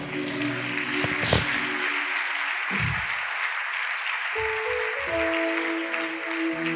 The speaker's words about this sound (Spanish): Estoy asegurado, digo, Dios me dará prosperidad. Celébrelo con un aplauso, por favor.